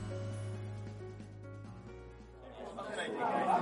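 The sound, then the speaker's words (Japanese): A continuous murmur of many overlapping voices fills a busy indoor game event, recorded at a free table, steady at first and swelling louder toward the end, with a low hum running underneath. “前回同様ですね、お聞きいただく前に、今回イベント中の収録のためですね、またしてもかなり周囲の音が入っております。”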